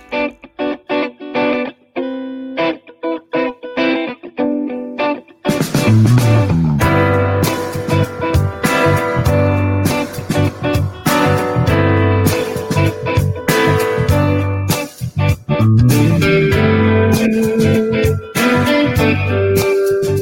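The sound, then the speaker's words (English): A song plays, opening with a sparse, choppy guitar-like intro before a loud full band kicks in around five seconds with heavy distorted, effects-laden guitars and steady driving drums throughout. “we won't play the whole thing, um, but um, hopefully people get a bit of a vibe for it”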